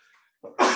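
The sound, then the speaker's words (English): A single sharp, loud cough bursts out, starting with a short rough onset and then a harsh, breathy blast, after a moment of near silence. “pardon me. Bless you.”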